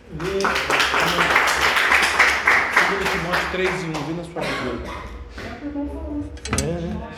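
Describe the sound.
An audience claps hands in praise of Jesus in a dense, steady burst that fades after a few seconds, with voices calling out and speaking over the applause.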